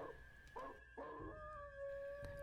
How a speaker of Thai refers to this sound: พอมันพูดจบเท่านั้นแหละ หมามันก็หอนขึ้น ไออีกคนหนึ่งก็ทำเสียงหมามันช่างทำเหมือนราวกับได้ยินหมาหอนจริงๆ มันช่างเยือกเย็นถึงกับขนลุก